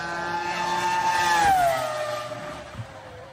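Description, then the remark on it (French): A Formula 1 race car engine roars with a high, sustained whine that peaks and then drops in pitch as the car passes by, then fades out. “On voit pas la voiture bouger, mais au moins. Ah si ça marche”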